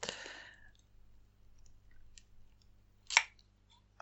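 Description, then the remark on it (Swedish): A metal jar lid clicks as it flexes, pushed outward by the heat inside the jar, with a brief rustle at the start, a few faint ticks, then one sharp pop near the end against a quiet background. “Så hör ju hur locket liksom knuffas ut av hettan inuti.”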